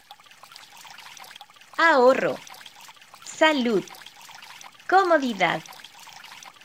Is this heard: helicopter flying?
no